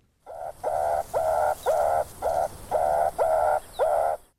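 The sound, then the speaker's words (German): A meerkat gives a rapid series of eight short, nasal calls in a steady rhythm, fairly loud, each note rising slightly at the start. “aber ja, es ist ein Erdmännchen.”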